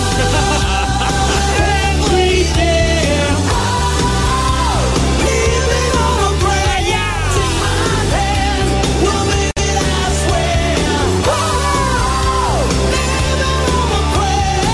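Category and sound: electronic dance music track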